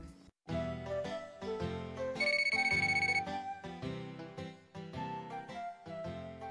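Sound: telephone ringing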